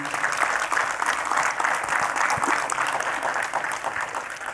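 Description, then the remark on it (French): An audience applauds the Lord during a morning sermon, the dense clatter of many hands at an even, sustained level for several seconds with no one speaking over it. “Est-ce qu'on peut applaudir notre Seigneur ce matin?”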